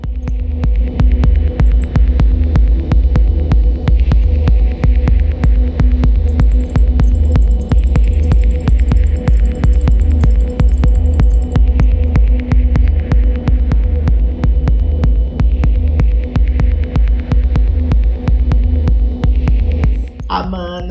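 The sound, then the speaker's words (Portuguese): A techno track by a Ukrainian techno DJ, with a heavy, throbbing bass pulse repeating steadily, layered with sustained droning tones and a faint high shimmering line, loud and continuous throughout with no voices. “é um DJ ucraniano de techno.”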